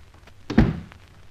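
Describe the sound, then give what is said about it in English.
A single solid thunk around the middle as a house door is pushed shut, fairly loud with a short low-end decay, set against quiet room tone. “Shut the door.”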